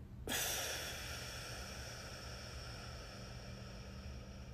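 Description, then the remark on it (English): A deep, drawn-out breath in a breathing exercise (inhale, hold, exhale), starting abruptly and holding a steady airy rush for several seconds over a low background hum, with no talking. “Inhale. Hold. Exhale”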